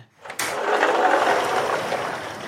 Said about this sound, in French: Le bruit que vous entendez est le bruit de la baie vitrée.